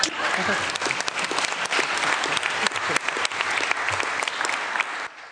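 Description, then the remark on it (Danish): An audience applauds steadily for about five seconds, a dense wash of many hands clapping, fairly loud throughout before stopping abruptly at the end. “Ja, men det er, når man stjæler sin egen klappetid.”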